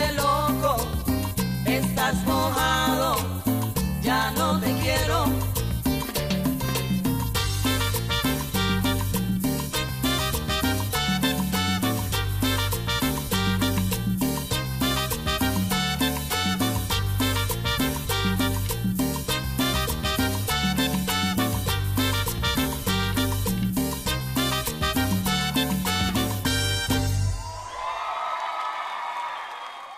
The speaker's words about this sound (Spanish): Oigan esa rola buenísima, ¿eh?